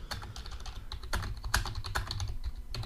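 Rapid, uneven clicking of keys on a computer keyboard, fairly quiet, with bursts of several keystrokes in quick succession and no voices.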